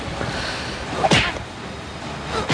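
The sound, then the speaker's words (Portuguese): Exaggerated movie fight sound effects: a punchy hit with a swishing whoosh lands sharply midway, followed by a second quicker strike at the very end over a steady noisy background. “O efeito sonoro da porrada, o soco de mão segurando, sabe quando bota as duas mãos juntas e bate?”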